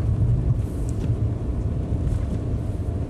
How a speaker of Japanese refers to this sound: ああ風がすごいまだ風で吹っ飛んで事故ったらどうしよう